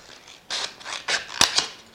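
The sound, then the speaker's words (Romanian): Scissors snip through a smooth plastic bottle, cutting out a square to make an earring, making about four crisp, crunchy cuts at an uneven pace, with no one talking over them. “Avem nevoie de o foarfecă și facem așa un pătrat.”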